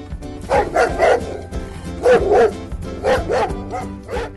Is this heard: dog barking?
yes